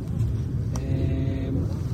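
A steady low engine rumble from a white car passing on a road, with a faint rising hum in the middle and a brief click, heard alone with no voices.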